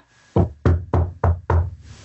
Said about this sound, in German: Warte, ich klopfe auf Holz. So, ich habe geklopft.